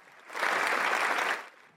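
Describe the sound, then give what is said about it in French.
A short burst of applause from many hands in the Senate as King Charles III arrives: dense, crackling clapping that swells quickly, holds steady for about a second, then fades out, with no voices. “À peine arrivé dans l'enceinte du Sénat, Charles III a été reçu avec une salve d'applaudissements.”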